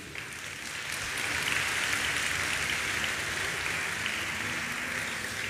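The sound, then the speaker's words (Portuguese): An audience applauds the Lord steadily, a dense wash of many hands clapping at once that swells slightly and holds for several seconds without any voices on top. “Se você crê nisso, diga eu recebo e aplauda o Senhor por isso.”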